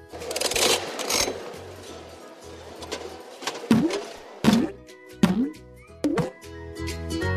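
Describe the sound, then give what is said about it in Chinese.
A capsule toy machine's crank being turned, a rattling, clicking churn for a few seconds, followed by four sharp clunks, each trailing a short bending musical tone, over a soft steady background. “现在我会下蛋啦，请转一转这台扭蛋机吧。”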